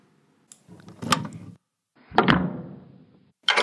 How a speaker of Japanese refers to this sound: 玄関のドアを開けると、そこには、